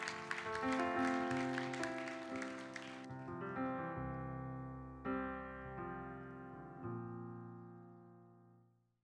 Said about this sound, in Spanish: Ese aplauso es de alabanza para el Señor. Aleluya.